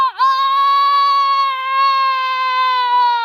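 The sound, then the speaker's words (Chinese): A human voice imitates a rooster's crow for the rooster Pidike, crowing at sunrise from atop a haystack: a single loud, sustained high-pitched call that dips briefly at the start and then holds steady for about three seconds. “随着皮迪克的打鸣声，一轮红日从天边冉冉升起。”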